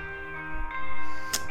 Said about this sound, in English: Sorry about that. That was my alarm that I turned off.